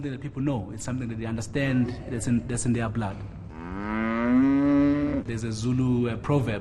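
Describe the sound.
A single long, drawn-out cow moo rises clearly in the middle, fairly loud, with people talking before and after it.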